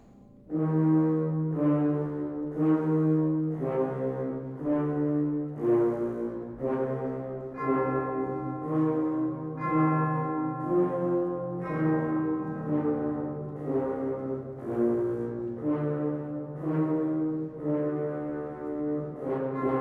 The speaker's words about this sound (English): For instance, here's an example of the Dies Irae as referenced by composer Hector Berlioz in his 1830 concert work, Symphonie Fantastique. It is heard here interpreted uh, on low brass, low woodwinds, and tubular bells.